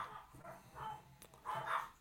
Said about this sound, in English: That's my dogs barking, if you can forgive them for a moment.